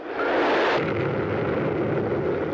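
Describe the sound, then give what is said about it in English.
A pressure cooker cooking two chickens bursts open with a loud explosive blast that rolls into a sustained roaring hiss and rumble for a couple of seconds, with no voices. “I got the uh, I got the chickens cooking in the pressure cooker.”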